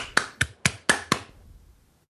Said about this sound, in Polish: To było, to nie, było to wolne, tak zwane, jak to się nazywa, Boże, slow clap zrobić. Czyli taki... O, właśnie taki.